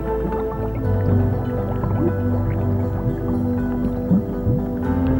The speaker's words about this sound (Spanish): a tu alrededor, observa el fondo del mar. El color del fondo del mar. Los sonidos del fondo del mar.